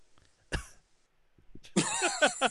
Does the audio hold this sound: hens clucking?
no